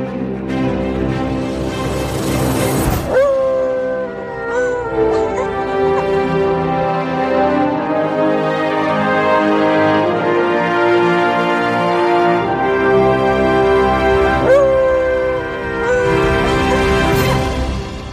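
A loud, lively instrumental theme tune with bright, layered melody plays steadily throughout, punctuated by two sharp dog barks near the start and near the end; no one speaks.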